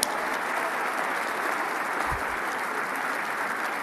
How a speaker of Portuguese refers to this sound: Eu acho que vale uma salva de palmas.